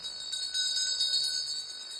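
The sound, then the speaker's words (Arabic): A small bell, rung by a leper walking through town to warn people away, rings repeatedly in quick, bright jingles, with sharp strikes rising over a steady metallic shimmer, at moderate volume, with no voices. “وطول ما هو ماشي لازم الجرس يكون عم بدق حتى العالم يعرفوا انه في ابرص ماشي يبعدوا عنه وكان لازم ينادي ابرص أبرص حتى العالم تزيح ما تنعدي منه”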